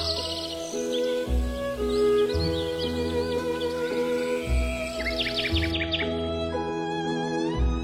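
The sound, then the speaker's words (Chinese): Quick, high-pitched bird chirps flutter in short bursts over a steady instrumental music bed with sustained tones and a repeating low bass pattern. “有一回，并肩坐在桃树下，风在林梢，鸟在叫，我们不知怎样睡着了。”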